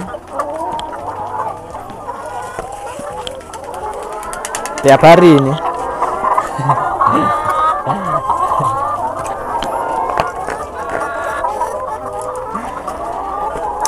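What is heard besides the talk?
chickens clucking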